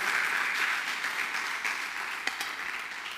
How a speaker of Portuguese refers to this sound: Ah, não, você podia dar um aplauso a ele.